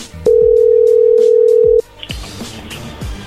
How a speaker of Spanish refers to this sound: Bueno, ahí se está marcando de nuevo, no hagas ruido.